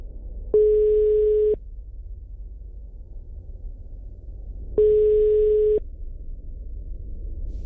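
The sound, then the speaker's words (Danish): An outgoing phone call's ringing tone: two steady, one-second electronic beeps about four seconds apart, heard through the line over a low background hiss, with no one answering. “Jeg ringer alligevel tilbage til Gantemir.”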